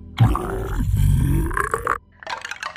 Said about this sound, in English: Barry burped up several small bones.